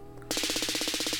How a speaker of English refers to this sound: Well, I like the ending until I heard that part. I guess that was the sound of guns blasting.